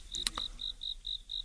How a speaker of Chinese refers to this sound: 他们每次啊就发现说，哎，这天快黑的时候，基本上啊有点看不清谁是谁的时候，他们就在那块儿听着知了叫，他们就躲在那个沙堆的后面。